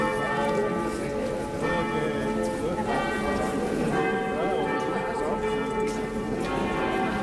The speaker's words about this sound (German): Und da läuten die Glocken. Und der Zug setzt sich in Bewegung an der Kirche vorbei mit ihren gelb schimmernden Fenstern.